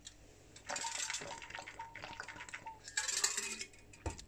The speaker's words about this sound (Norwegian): Åh, jeg skal drikke litt vann òg. Det er viktig med vann. Husk å drikke masse vann.